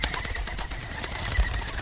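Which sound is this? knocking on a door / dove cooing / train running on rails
dove cooing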